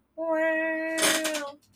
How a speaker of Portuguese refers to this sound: Ih, a cadeira faz barulho.